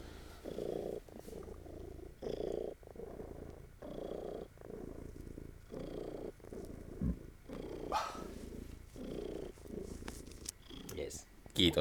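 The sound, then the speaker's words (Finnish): A male cat purrs in a steady, rhythmic cycle of low rumbling pulses, with brief soft rustles and handling noises breaking in now and then. “Hän on tosi uroskissa.”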